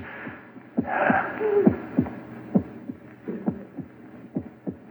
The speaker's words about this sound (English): That noise. Hear it? It's your heart. Beating, pounding, driving the blood through your veins. Beating more slowly now. Slower and fainter. Running down like a tired clock.